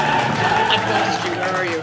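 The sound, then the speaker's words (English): A crowd cheers wildly as Carol Burnett is named as a guest's mother, a dense, steady roar of many excited voices that stays loud for the full two seconds, with scattered shouts and a hint of clapping. “Crowd going wild.”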